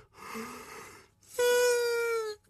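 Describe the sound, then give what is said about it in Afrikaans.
A loud human yawn: a breathy inhale followed by a drawn-out voiced groan that slowly falls in pitch, then cuts off. “Ek sê jammer, rarig gaap.”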